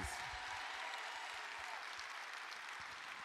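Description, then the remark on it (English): A church audience claps their hands to give praise to God in a steady, dense burst of applause that holds at an even loudness for the whole stretch, with no voices standing out. “Well, if you well, if you love the Lord and you don't care who knows it, clap your hands and give God big praise.”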